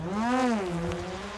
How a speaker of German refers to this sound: Die Drohne muss senkrecht landen und bietet dem Wind viel Angriffsfläche. Auch die Landung erfolgt automatisch. Die Drohne versucht, mit den Böen klarzukommen. Geschafft.